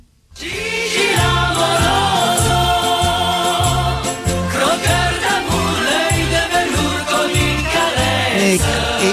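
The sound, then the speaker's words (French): A loud, upbeat intro music jingle introducing a commentator's segment kicks in right away, driven by a steady, pulsing bass beat under bright layered melody, playing on its own with no voices. “Et d'ailleurs, on va écouter sa musique de présentation”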